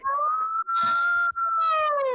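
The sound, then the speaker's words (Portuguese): A voice imitates a wailing ambulance siren in a high, shrill, sustained tone that rises and falls, broken by two quick breaths, loud with no other sounds. “Gente, barulho de sirenes, esganiçado foi essa.”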